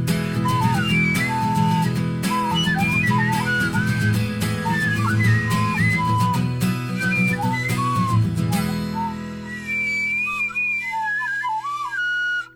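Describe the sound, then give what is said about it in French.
A flute plays a bright, wandering melody of short, breathy notes over a steady low musical backing, then continues with quick high trills once the backing drops away near the end. “alors oui, il y a de la flûte avec, attention.”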